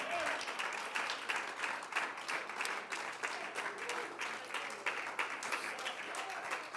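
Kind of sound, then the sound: crowd, audience applauding in church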